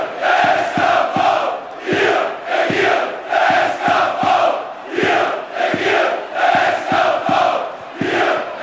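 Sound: stadium crowd cheering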